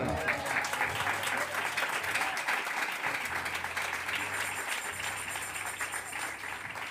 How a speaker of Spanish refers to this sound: Dele palmas al Señor en esta hora.